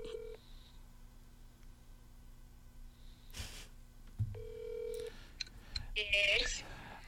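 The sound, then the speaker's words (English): Telephone dialing tones as a call is placed to the speaker's mother on speakerphone: a few short, steady electronic beeps spaced apart, with some soft rustling and brief noise bursts between them and a faint, muffled voice. “I could call my mom and have her talk on the show for the first time.”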